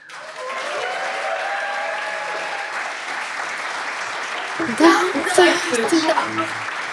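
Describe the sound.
A crowd claps steadily for several seconds, a dense wash of applause with some voices and cheers mixed in, swelling in a couple of louder bursts toward the end.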